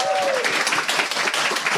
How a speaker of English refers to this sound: Please give a round of applause to all of our panelists.